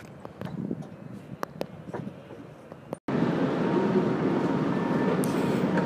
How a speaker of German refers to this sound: Was man hier im Hintergrund hört, sind Rolltreppen. Äh, und zwar haben wir gedacht, wir fahren die Kaskaden äh, mit der Rolltreppe runter